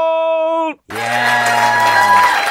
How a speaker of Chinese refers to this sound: 嗯哦，我知道，所以我帮你负责鼓掌的部分。